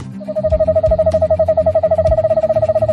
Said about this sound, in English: the eastern screech owl.